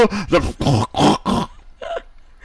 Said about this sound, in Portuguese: Desculpa, eu tô arrotando o negócio aqui. Comi tanto que tá saindo.